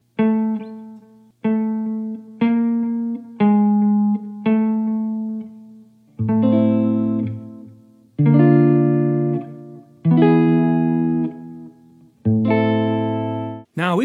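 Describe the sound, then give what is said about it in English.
A piano plays a slow chord progression in the key of A alone, moving from the tonic to a half step above, a half step below, and back to the tonic: several short, evenly spaced chords, then fuller, longer chords with added low bass notes, each struck cleanly and left to ring and fade. “So when we play this chord progression, we are playing the tonic of the key A, then we are playing the note just a half step above that, the note just a half step below that, and the tonic again.”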